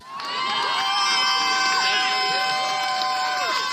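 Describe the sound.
A large crowd of people queuing outside the Apple Store on Fifth Avenue in New York cheers and whoops continuously, counting down the last minutes before a new device goes on sale. A dense, loud wall of excited voices, with individual shouts rising and falling throughout.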